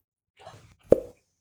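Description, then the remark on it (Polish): A single sharp cork pop, loud, comes right after a brief low rumbling, straining sound, then quickly fades to silence. “Więc z tej flaszki, którą tam sobie popijał, wziął korek i wsadził sobie, no wiadomo, w otwór, żeby się zabezpieczyć.”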